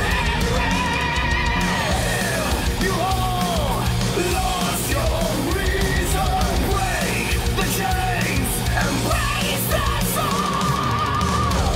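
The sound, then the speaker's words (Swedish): Harsh, raw screamed vocals over a dense, loud wall of heavy music with rapid, machine-like computer-programmed drumming, sustained without a break for the whole stretch. “Fan, de där skriken är rätt råa alltså.”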